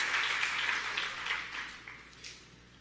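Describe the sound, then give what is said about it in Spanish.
An audience applauds together for Jesus at the preacher's call, a steady wash of many hands clapping that fades gradually toward the end, with no one speaking over it. “Dele un aplauso fuerte verdaderamente a Jesús.”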